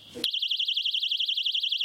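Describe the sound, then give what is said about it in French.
A personal safety alarm of the kind given to restaurant staff in central Nantes, France, after assaults blares, a piercing high-pitched electronic tone warbling rapidly up and down without pause after a brief moment of background noise. “Olivia Delésigné, la patronne, a décidé d'équiper ses salariés”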